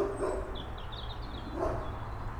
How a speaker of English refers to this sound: Where's the dog at? I'm sorry. That dog is across the lake somewhere. The, the bark travels over the water. It sounds like it's right next to me.